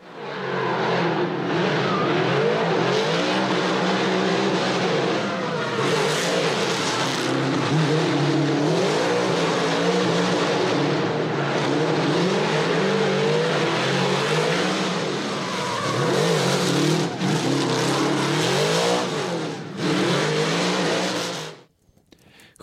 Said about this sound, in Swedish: Chevrolet LSX.